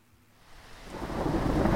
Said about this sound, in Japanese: 島では通り雨が多いのあの雲だったら豪雨かもしれませんんあら本当もう降り出したみたい